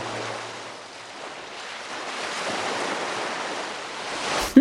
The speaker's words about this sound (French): vous allez vous laisser emporter par la mer et le doux bruit des vagues